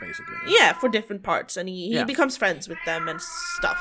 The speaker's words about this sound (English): Christ, if you can hear that, my cat is yowling in the background. I'm sorry.